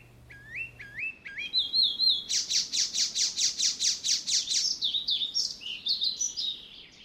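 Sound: icterine warbler song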